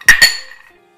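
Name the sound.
glasses clinking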